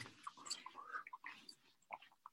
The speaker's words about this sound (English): I'm eating peanuts in case people want to know what that noise is.